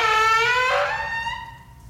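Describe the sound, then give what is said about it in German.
A long, high-pitched squeak and creak from dungeon doors swinging open, its tone wavering and bending as it goes, fairly loud, fading toward the end. No voices. “Unten im Kerker angekommen, hört ihr ein sehr, sehr lang erwartetes Geräusch. Ein Quietschen und Knarzen”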